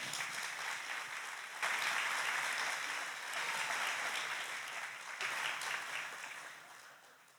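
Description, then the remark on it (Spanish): An audience applauds Jesus steadily for several seconds, a dense, crackling wash of many hands clapping with slight surges before tapering off toward the end. No one speaks over it. “Dar un aplauso a Jesús.”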